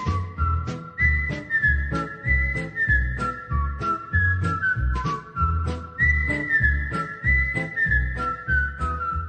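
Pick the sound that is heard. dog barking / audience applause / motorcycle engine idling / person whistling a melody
person whistling a melody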